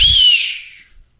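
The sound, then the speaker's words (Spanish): A whistling firecracker (chiflador) lets out a loud, shrill, hissing shriek that starts with a low thump and then fades away over about a second, with no one speaking. “Son los chifladores”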